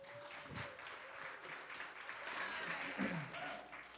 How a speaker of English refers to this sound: Let's give you guys one more round of applause.